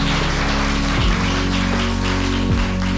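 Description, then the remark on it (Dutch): An audience applauds the guests of a live program in a steady, dense wash of clapping that holds for about three seconds, with a low sustained musical tone running underneath. “En dan is het nu tijd om applaus te geven voor ook deze gasten.”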